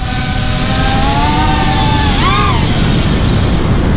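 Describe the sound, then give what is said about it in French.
A very small drone whines past at extremely high speed, its buzzing motor tone rising and then swooping down as it passes overhead, over a constant rumble of background noise. “Il y a un drone qui vole au-dessus de moi.”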